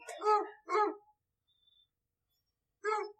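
A basset hound named Freddie Mercury howls excitedly in three short, loud, wavering bursts: two in quick succession, a pause, then one more.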